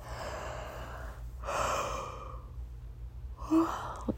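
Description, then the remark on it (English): A breathy yawn: a long drawn-in breath followed by a sighing exhale, with another soft breath at the end, all fairly quiet and with no talking. “It's really late. Um, and I can't stop yawning.”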